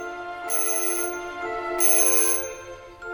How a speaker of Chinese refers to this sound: 到二楼以后的洛士邦医生一直没有下来过，只听到卧室里的叫人铃不时地响着。